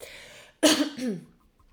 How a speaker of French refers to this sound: Attention, je vais tousser